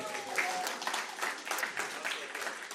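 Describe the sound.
Applause from an audience fills the whole stretch, a dense, steady crackle of many hands clapping together at moderate loudness, with a few voices mixed in underneath.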